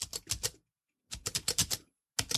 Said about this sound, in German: Ich musste Punkt 5 und dann Punkte 4, 6 für den Großbuchstaben innerhalb des Wortes tippen. Und ich tippe hier jetzt in Kurzschrift. Ne? Also ich tippe hier tatsächlich Kurzschrift ein